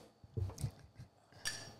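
Glasses clink together in a toast: a single bright, ringing chime that lingers briefly, after a few soft, dull knocks and bumps. No one speaks.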